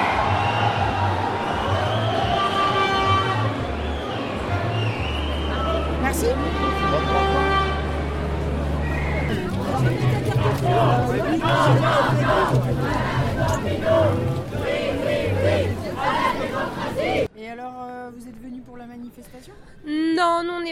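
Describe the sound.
A loud protest crowd at a demonstration in Nantes chants and shouts together over sustained horn blasts and steady droning noise; near the end the chanting drops away and one person talks briefly.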